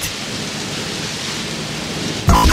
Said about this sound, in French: pendant qu'il finit de pleuvoir. Il, pleut-tu ou il neige, là?